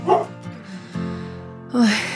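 A dog barks three times over about two seconds in the radio drama "Pensar en tener otra vez un perro" (Difusión Cultural UNAM, 2001): a short yelp, a drawn-out whining bark, then a louder, sharper bark at the end, with no one talking.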